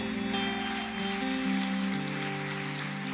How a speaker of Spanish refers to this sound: Señor, alguien puede darle un aplauso a Dios por ello.